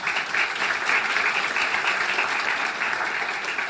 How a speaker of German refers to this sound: Jetzt mal Applaus, würde ich sagen.